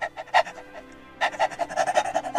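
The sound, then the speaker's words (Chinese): A pet dog named Laifu, in a small courtyard between a shop and a home, pants eagerly as it affectionately comes up wagging its tail, in quick, breathy bursts, a short run of huffs, a brief pause, then a faster steady rhythm of rapid panting breaths, fairly loud with no talking. “阿德啊养的那条狗啊来福啊，亲热的要凑上来，又摇尾巴了，又想要舔它了”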